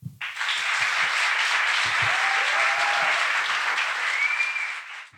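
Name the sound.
audience applause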